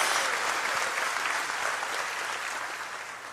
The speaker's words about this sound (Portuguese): Pode dar uma salva de palmas ao Senhor, pode dar um glória a Deus em nome de Jesus.